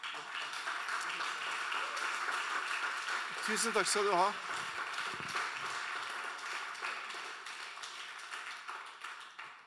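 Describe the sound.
Sustained audience applause fills the room, a dense wash of clapping that fades slowly toward the end, while someone briefly speaks over it near the middle.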